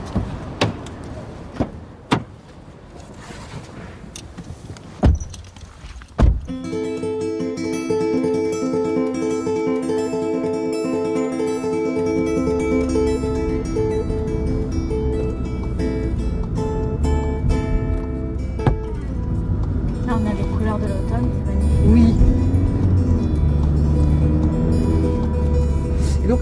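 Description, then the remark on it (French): A few sharp clicks and heavy thuds of car doors shutting, then an engine starts up and settles into a steady rumbling drone as the car drives toward the village of Vrignemeuse, about a quarter of an hour to 20 minutes away. “Vous venez avec nous dans la voiture Avec plaisir.”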